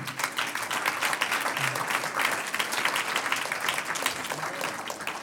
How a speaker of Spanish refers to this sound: ¿Cuántos dicen gloria a Dios? Un aplauso al Señor.